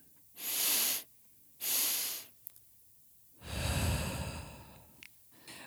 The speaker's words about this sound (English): Breathe in slow and deep, followed by a second quick and full inhale, and exhale fully and forcefully through the mouth, as if to blow out birthday candles.